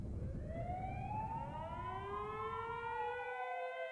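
Ambulance and police sirens wail together, several overlapping rising and falling tones sweeping continuously over a low rumble of traffic, fairly loud and steady throughout.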